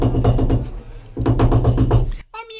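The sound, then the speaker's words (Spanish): Rapid, insistent knocking on a door in two loud bursts of repeated blows, separated by a short pause, with a low steady hum beneath and a voice beginning to speak right at the end. “Y de pronto llamaron a la puerta, con gran insistencia.”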